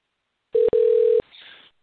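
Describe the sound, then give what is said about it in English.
A telephone ringing tone as a call is placed back to a guest, Stefan Kapičić: a steady mid-pitched tone sounding loudly, first in a short burst and then in a longer one, followed by a faint hiss of line noise. No one speaks. “I'm going to call him right back.”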